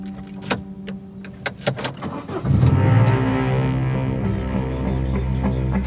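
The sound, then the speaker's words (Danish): A few sharp mechanical clicks and a jingle of keys, then a car engine turns over and settles into a steady rumble as the driver puts the car in gear and sets off on a journey, its trunk full of books. “Da Else sætter bilen i gear og begynder rejsen af, er hun stadig ikke klar over, at hun lige nu har bagagerummet fyldt med de puslespilsbrikker, hendes tilværelse altid har manglet.”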